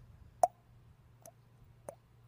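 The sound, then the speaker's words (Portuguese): A voice imitates water drops with three wet mouth plops at a slow, uneven pace. The first is sharp and loud, the next two softer, over a faint low hum. “Então tem a gota d'água.”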